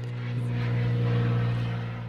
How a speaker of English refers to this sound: We have an airplane flying over right now. It's okay. It's authentic. I mean, yeah. you were outside on your terrace, and yeah. this is Puerto Rico life. It's the same airplane flying around.